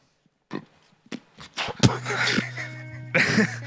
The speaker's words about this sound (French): Il a éructé en public. Éructé.